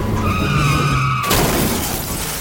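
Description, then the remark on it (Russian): A loud, sustained tire screech with strong tonal squealing as a Volga car skids on a wet road in heavy rain, cut off abruptly at about 1.3 seconds by a violent crash into a truck and a burst of shattering windshield glass and crunching debris. “Валера отчаянно выворачивает руль, колеса проскальзывают на мокрой дороге”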